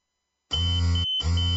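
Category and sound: signal or alarm, pager beeping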